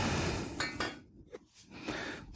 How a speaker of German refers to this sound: Genau, also wenn das Ganze jetzt aufkocht hier, ich werde da jetzt auch mal einen Deckel drauf tun. Das beschleunigt das Ganze ungemein. Dann mal nehmen wir mal den Glasdeckel, dann sehe ich auch, was passiert.